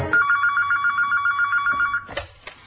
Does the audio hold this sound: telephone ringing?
yes